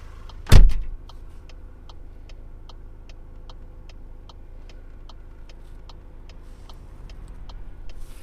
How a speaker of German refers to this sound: weil ich bin natürlich hier ähm, im Auto. Ich kann hier nicht einfach aus dem Auto gehen, weil ich muss hier ein bisschen aufpassen weil wir hier mitten auf der Straße sind, auf der Landstraße.